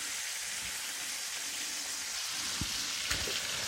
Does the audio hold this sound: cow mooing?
no